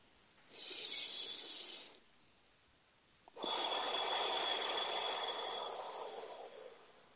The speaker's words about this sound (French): Gardez les yeux fermés, faites les respirations avec moi. Une autre respiration.